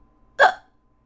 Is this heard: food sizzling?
no